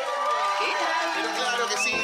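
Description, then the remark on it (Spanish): Recorded crowd applause mixed with loud cheering, a dense, steady roar of many voices shouting and whooping over two seconds, with no pauses. “Gracias por estos aplausos que nos levantan el ánimo, aunque son grabados.”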